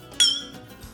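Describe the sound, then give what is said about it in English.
A single bright clink of a Glencairn glass, a scotch snifter holding a small pour, rings out sharply as a toast for cheers, lingering briefly with a high shimmering tone before fading. “What I do is I'll put it in a little uh, scotch snifter, a Glencairn glass, if you will, and I'll just have a little bit, almost like I'm I'm having a little cognac or just a little bit of uh, port.”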